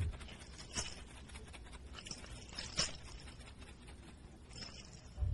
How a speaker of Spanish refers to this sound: E-, es un sonajero para que el niño se entretenga. Pero aquel precioso sonajero no conoció a su dueño.